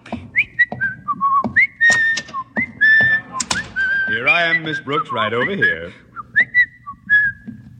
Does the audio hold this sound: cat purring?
no